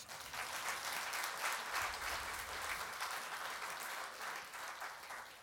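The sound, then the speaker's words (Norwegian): A crowd claps steadily and loudly for several seconds as applause for Jesus, a dense wash of many hands with no voices standing out above it. “En applaus til Jesus.”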